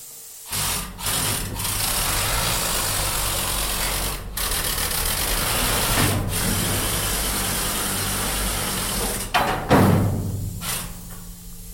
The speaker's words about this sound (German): Man kann fahren, hat einen Motor zum Fahren und hat einen Motor für die Schaufel. Und das tönt in etwa so. Ist also sehr laut.